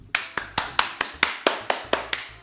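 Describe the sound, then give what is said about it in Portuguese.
A single person claps about eleven times in a quick, steady rhythm, each clap crisp, with no talking over it. “Eu acordei às 6 da manhã hoje, então palmas.”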